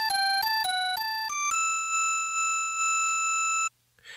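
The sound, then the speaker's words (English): A bright, buzzy Super Nintendo synth tone, panned between left and right, plays a few quick alternating notes, then holds one steady pitch for about two seconds before cutting off abruptly. No voices. “The Super Nintendo could set volume levels independently for both left and right, which allowed for many custom panning options.”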